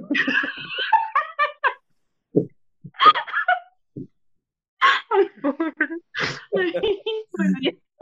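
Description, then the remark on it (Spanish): Someone breaks into a fit of coughing mixed with laughter: sharp, breathy bursts and gasps come in uneven clusters, with short pauses between, and voiced laughing sounds woven through. “pero fue, fue me da la tos y me río.”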